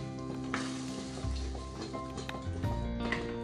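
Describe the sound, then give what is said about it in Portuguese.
A pan sizzles steadily with six eggs frying with tomato and onion, punctuated by occasional clinks and stirring scrapes, fairly quiet, with no talking. “É, quebrei seis ovos porque estou fritando com tomate cebola”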